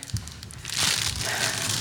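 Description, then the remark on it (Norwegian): Crinkling of a candy wrapper being unwrapped, starting quietly and then swelling into a steady, crackly rustle that continues to the end, with no one speaking. “Jeg kunne tatt av papiret, men jeg ville vise at den var helt fersk.”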